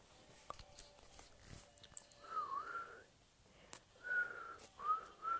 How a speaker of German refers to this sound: Ich kann nicht pfeifen, ich weiß.